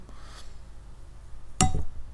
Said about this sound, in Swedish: Det där var jag som skålade micken med mitt glas rödvin 13 Red wine from Spain.